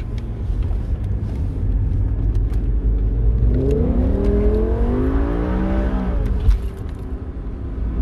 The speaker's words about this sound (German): Wenn wir mal, wenn wir mal beschleunigen, mal hören, wie es dort.